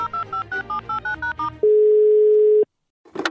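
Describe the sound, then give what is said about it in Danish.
A quick run of about eight DTMF tones as a phone number is dialed, followed by a steady ringback tone lasting around a second, then a brief noisy click as the line connects. “For i min telefonbog har jeg selvfølgelig også nummeret på en, der kan svare på lige præcis det spørgsmål.”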